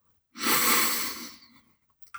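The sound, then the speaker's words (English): A single deep, audible breath, taken in through the nose and out through the mouth, a loud airy rush that swells quickly and then fades out gradually over about a second, with no talking. “Control your breathing. The breath we did right at the beginning of this podcast in through your nose and out through your mouth.”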